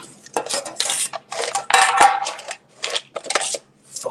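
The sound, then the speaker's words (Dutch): Someone rummages in a metal cookie tin, producing a busy run of clanks and rattles in uneven bursts over a few seconds, with no voices. “Ik zou even gewoon nu in de koekendoos kunnen vliegen.”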